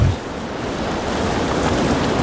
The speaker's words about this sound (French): Ah le bruit de la mer. Ah c'est bon. Une petite mouette par-ci par-là qui traînasse.